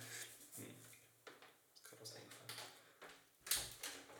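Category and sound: household object, door being closed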